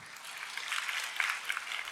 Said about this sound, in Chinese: 好吧，我们拍手，把荣耀归给神。